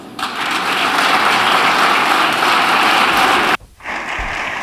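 A parliamentary ovation in the Spanish parliament: a large group of deputies applauds Santiago Abascal as he goes to the speaker's rostrum during a motion of censure debate. Dense steady clapping lasts about three and a half seconds, then abruptly drops away, leaving a softer scattered patter.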